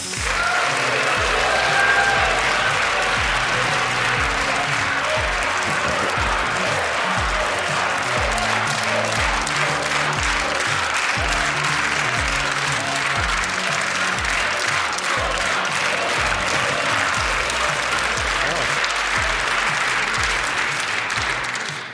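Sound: studio audience applause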